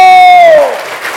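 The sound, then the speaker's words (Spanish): Loud, dense applause from a large crowd applauding the Lord, with a sustained high tone sliding downward over it in the first half before fading into steady clapping. “Dele fuerte ese aplauso al Señor.”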